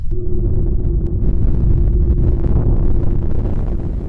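A deep, loud rumbling roar of a sound effect for an exploding star, like a massive explosion, sustained and steady for the whole few seconds with a low droning hum underneath and no voices.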